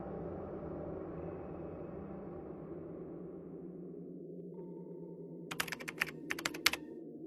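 Two quick bursts of typing on a computer keyboard, sharp clicking keystrokes near the end, over a steady low rumble, with a faint thin tone just before the clicks begin.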